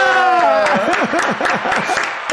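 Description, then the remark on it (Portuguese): A short burst of crowd applause, a sound effect played by the production at the close of the show Fora do Jogo, mixed with whooping, cheering voices. It is loud, with scattered sharp claps over the rising and falling cheers. “Solta os aplausos aí, aí produção!”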